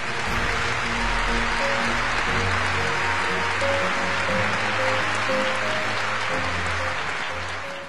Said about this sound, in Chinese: 全场支持中国的代表长时间起立鼓掌。